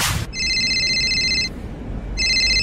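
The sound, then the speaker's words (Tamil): A telephone rings with a bright electronic trill, one long ring, a short pause, then a second ring beginning, clear over a faint low rumble, with no one speaking. The coach is calling Dhoni. “இதுக்கு நடுவுல திடீர்னு அந்த கோச்சே ஃபோன் பண்ணாரு”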